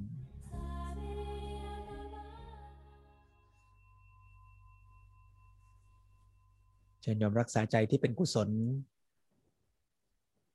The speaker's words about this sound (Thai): แม้แต่เสียงระฆังเมื่อดังขึ้นก็จะค่อยๆ เบาและจางหายดับไปในที่สุด